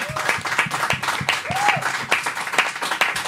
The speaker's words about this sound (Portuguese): Ó, se tivesse parado no minuto exato. eu acho, mas mais uma salva de palmas